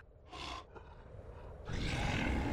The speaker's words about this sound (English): Drogon and Rhaegal fill the doorway, the walls of the palace seeming to rattle with the force of the dragon's triumphant roars.